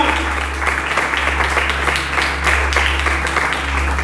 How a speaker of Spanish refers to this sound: Y le dan un fuerte aplauso a nuestro Dios. Aleluya.